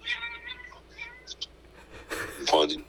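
Two male cats yowl at each other in drawn-out, wavering cries while fighting and biting each other, one trying to mount the other, fairly faint, ending in a harsher, louder burst like a snarl or hiss.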